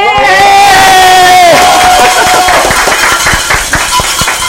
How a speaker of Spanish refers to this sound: Vamos a recibir un muy fuerte aplauso a alguien que admiramos mucho, hijo de hambre, que un hombre que yo en lo personal admiro profundamente y quiero mucho.